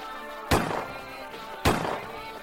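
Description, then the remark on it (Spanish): Two sharp rifle shots, fired by a hunter in a hunting area, ring out close by in a dense forest, about a second apart, each a loud crack followed by a brief rolling echo. No one speaks. “Saben que es una zona de cazadores, aunque no era época para ello quedan extrañados, pues ha sonado demasiado cerca.”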